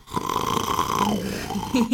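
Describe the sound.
A person imitates snoring, showing the soft palate fluttering against the back wall of the throat when lying on the back. A rough, fluttering rasp is held for about a second, then shifts to a lower rumbling tone, moderately loud with no talking.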